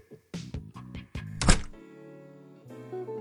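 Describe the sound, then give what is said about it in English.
A door shuts with a solid, heavy thunk partway through, after a few shorter knocking bumps, followed by a low sustained hum. “I'm glad you got the door.”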